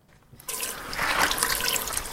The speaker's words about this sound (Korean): 아, 그치. 이거 물을 잘 묻혀줘야 된단 말이야. 이 소리의 정체는 바로 설거지였습니다.